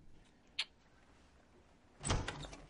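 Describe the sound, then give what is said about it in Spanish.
A door opens: a sharp click of the latch, a brief pause, then a louder rushing, scraping sweep as it swings open. No voices are heard. “abre la puerta.”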